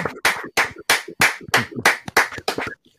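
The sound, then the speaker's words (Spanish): Steady, rhythmic applause after an interview: about nine loud, sharp claps in an even beat, each with a brief ringing tail, and no voices over them. “Bueno, Wow, menuda entrevista, qué pasote, sí señor, un aplauso.”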